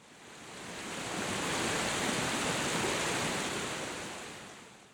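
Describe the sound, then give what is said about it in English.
Water pours steadily from fountain spouts in the town square of Pasarón in the La Vera region, a continuous rushing splash that swells louder through the middle and eases toward the end, with no voices present. “One of the symbols of Pasarón, as in the entire La Vera region, is water, which can be seen flowing through the streets or coming out of the spouts in the square itself.”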